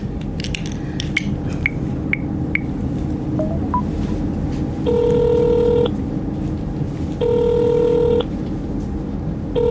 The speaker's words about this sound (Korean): 아, 잠깐 전화 좀.